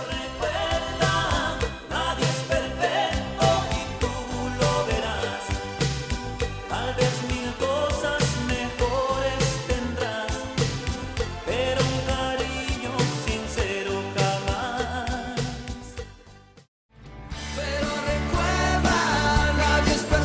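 A grupero-style song with its classic keyboard riding over a full band, playing steadily and loudly, then cutting out for a brief moment before the music comes back in.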